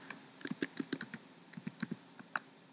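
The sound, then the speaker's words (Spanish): Rapid typing on a computer keyboard to unlock a computer that had switched off, a quick burst of crisp key clicks in an uneven rhythm with a couple of short pauses, fairly quiet, no voices. “esos sonidos raros fueron porque se me apagó la computadora y tuve que desbloquearla y todo eso.”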